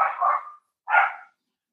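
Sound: dog barking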